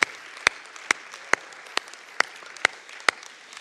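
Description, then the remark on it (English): An audience claps their hands to Jesus in the morning, in a steady, even rhythm, with sharp, loud beats standing out above a softer wash of many hands clapping together. No one speaks. “Let's just clap our hands to Jesus this morning.”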